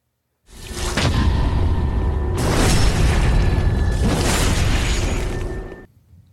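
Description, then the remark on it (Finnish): The Dark Souls 3 backstab riposte sound effect: a loud, heavy layered impact with deep booming rumble and whooshing bursts swelling three times over about five seconds, then cutting off abruptly. No talking. “Mutta joka tapauksessa tämän kilpailija on sitten Gakon äh, meille laittama Dark Souls 3 Backstab riposte ääni, aina samanlaista korvakarkkia.”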